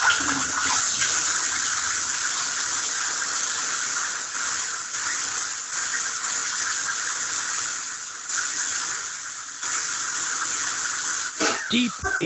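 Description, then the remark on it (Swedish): Tap water runs in a steady, hissing stream into a glass for about twelve seconds, even in loudness, ending with a few brief squeaky sounds. “Jag ska hämta ett glas vatten tror jag.”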